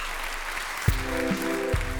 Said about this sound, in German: Du hast gerade getanzt, du bist vollgeschwitzt, glücklich, alles hat geklappt. Und auf einmal kommt eine Wow und ein wahnsinniger Applaus.